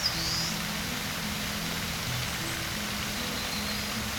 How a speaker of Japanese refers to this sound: ここは森の中の滝だすごい大きな滝水しぶきが気持ちいいね